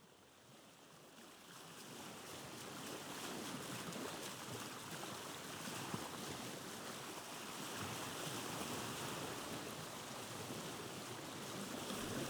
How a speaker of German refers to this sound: Die Sonne schien, es war windstill und warm. Spiegelglatt lag das Meer vor dem Dorf und die jungen Kerle ruderten.